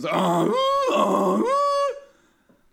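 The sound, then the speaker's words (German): A voice mimics a theater's start signal, which tells people the show is about to begin and they can enter the hall, with a loud, buzzy drone that swells and bends in pitch twice over about two seconds, then stops abruptly. “Genau, das klingt so ähnlich wie der Soda-Stream.”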